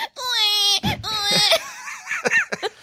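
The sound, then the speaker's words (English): An adult's voice mimics a baby's wailing cry, a long high-pitched sustained wail followed by shorter choppy sobbing bursts, loud. “my fists up like a little baby, and I go.”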